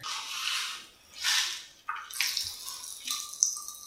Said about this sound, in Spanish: La Coca-Cola cuando la abres suena así por dentro.